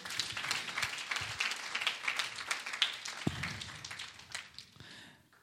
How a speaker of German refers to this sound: Und ähm, von daher vielen Dank an alle Akteure. Es war richtig gut. Gebt denen nochmal einen Applaus, bitte.